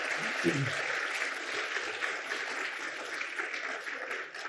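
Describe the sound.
A room full of people claps steadily for several seconds, a dense, even wash of applause, with a brief murmur of voices near the start.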